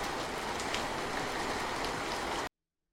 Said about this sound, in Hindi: अगले दिन सुबह से ही बारिश हो रही थी मैंने सोचा कि आज अगर मेट्रो से जाऊंगा तो भीग जाऊंगा